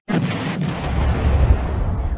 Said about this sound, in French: Un bruit, une explosion, une onde de choc.